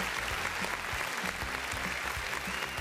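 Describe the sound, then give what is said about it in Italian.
A crowd applauds a doctor guest steadily, many hands clapping in a dense, continuous patter that stays loud and even throughout, with no voices rising above it. “Un applauso al dottor”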